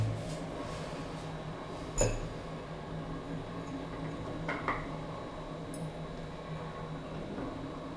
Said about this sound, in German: Wir machen jetzt wieder Süßstoff rein in den Kaffee.